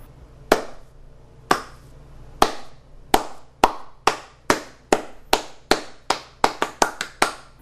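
A single person claps their hands about seventeen times, sharp and loud, starting slowly and speeding up into a quick, accelerating rhythm. No one speaks.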